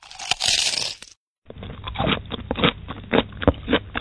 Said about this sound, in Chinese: 拿出一片锅巴，放在了自己的嘴里，边嚼还边说：“那挺脆的，你你听听。”